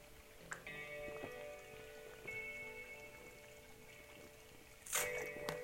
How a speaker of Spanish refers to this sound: Perdón, creo que fueron como cinco sorbos. Escucharon eso.